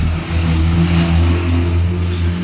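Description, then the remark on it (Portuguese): Motorcycle engines of many delivery riders rumble and rev loudly in busy São Paulo city traffic, a steady droning hum layered over a wash of street noise, with no voices. “E o ruído dessas muitas motos carrega os contornos políticos do nosso momento.”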